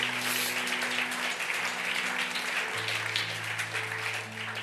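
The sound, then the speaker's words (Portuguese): A crowd claps steadily and continuously, giving a round of applause to Jesus. A dense wash of applause plays over sustained low keyboard or organ chords shifting underneath. “Dê uma salva de palmas a Jesus se você crê nisso.”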